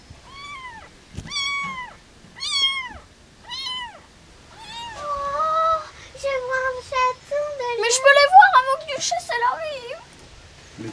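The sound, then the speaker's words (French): Three kittens meow in high, thin mews: four distinct spaced cries at first, then a busier stretch of overlapping, wavering calls from the kittens at once. “Ouais, il y a trois chatons.”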